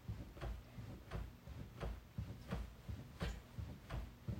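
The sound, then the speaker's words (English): A bedroom door thumps and knocks against its frame in a steady, repeating rhythm, about one dull knock every second or less, moderately loud, with no voices. “Whatever. It's our door. It's our bedroom door.”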